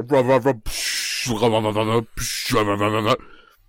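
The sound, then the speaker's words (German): A voice imitates a captain's garbled, noisy in-flight announcement on a propeller plane, alternating loud mumbled vocal bursts with harsh hissing static, for a few seconds. “Dann hat, dann hat er versucht, eine Durchsage zu machen, da hast du so,”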